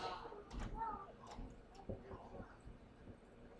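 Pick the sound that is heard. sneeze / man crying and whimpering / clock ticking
clock ticking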